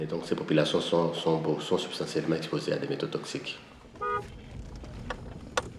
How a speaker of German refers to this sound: Jetzt kämpft sich das klapprige Auto von Mika Entenga, dem jungen Journalisten, der mich begleitet, durch die Schlaglöcher einer unwirtlichen Kraterlandschaft